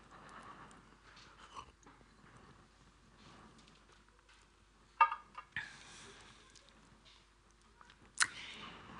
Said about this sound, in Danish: Jeg skal lige have en slurk her.